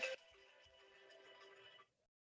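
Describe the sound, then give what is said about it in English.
A mobile phone rings with a bright electronic ringtone, a sharp loud burst followed by a steady tonal chime lasting under two seconds before it cuts off abruptly. Nobody speaks. “Sorry, my phone should be on silent.”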